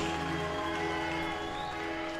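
Steady audience applause for both fighters after a fight on a Golden Boy Promotions card on Facebook Watch, before the scorecards are read. A dense wash of clapping holds an even, moderately loud level with a faint constant tonal hum underneath and no voices.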